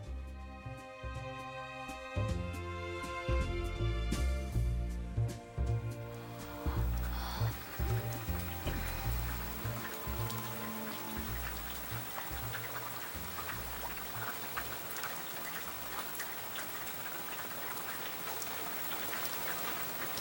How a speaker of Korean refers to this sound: 잠은 오지 않고 오지 않던 비가 내리기 시작합니다.